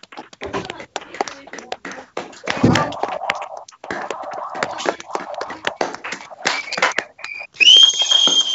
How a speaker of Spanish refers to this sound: yo como soy muy macarra, además de aplaudir, silbo mucho. Mira.